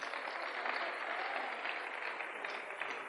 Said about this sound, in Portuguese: Quem falou isso? Fica de pé, aí, senhor. por favor. Uma salva de palmas.